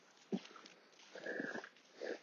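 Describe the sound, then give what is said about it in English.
A dog snuffles and snorts while eating beets, in a few short, breathy bursts with a faint nasal whine, fairly quiet and with no talking. “Stop eating the beets!”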